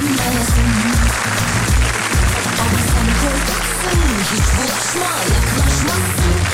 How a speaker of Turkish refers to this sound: Bugün alkışlar Avrupa yakasına. Bugün Avrupa yakasına.